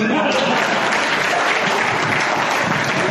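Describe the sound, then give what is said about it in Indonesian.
A crowd applauds in a steady, dense wash of clapping that stays loud and even for about three seconds, with no clear individual claps standing out. “Tepuk tangan dong.”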